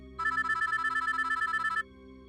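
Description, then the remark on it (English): The ringing tone of an outgoing phone call plays clearly for about a second and a half, a bright rapid warbling trill at steady volume over a low background hum, then cuts off abruptly. “Finally, I pulled my phone from my pocket and I made a phone call.”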